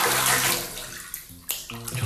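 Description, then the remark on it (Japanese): Bath water sloshing and splashing in a tub, with a steady wash of water broken by a few sharper splashes and drips; no voices. “前回のあのお風呂のチャポンっていう水の音なかなかいいねと言われたのでちょっと多めにちょっ”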